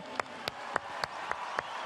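An audience applauds the singers on stage at a tribute performance in a steady, continuous wash of clapping, with sharper claps standing out at an even, rhythmic pace, about seven in under two seconds.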